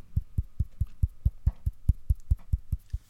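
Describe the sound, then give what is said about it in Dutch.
Fingertips tap on skin at specific energy points in a steady, quick rhythm, about fourteen soft, dull thumps in three seconds, low-pitched with no talking. “We gaan echt kloppen op bepaalde plekken, hè, op die energieplekken in onze huid.”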